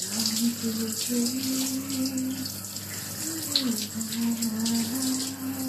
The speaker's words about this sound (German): Shower of a Dream. Das, was Sie da hören, ist eine traumhafte Dusche von Natalia Drabik. Natalia Drabik ist eine der Preisträgerinnen von The Missing Link, einem Wettbewerb, den das Psychoanalytische Seminar Zürich alle zwei Jahre ausschreibt.